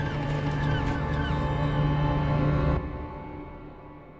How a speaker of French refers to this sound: Ils s'avancèrent un peu, s'arrêtèrent et poussèrent quelques cris extraordinaires et sinistres qui résonnèrent comme un chant funèbre. Aucun de nous n'avait jamais entendu les manchots crier ainsi. L'effet était saisissant.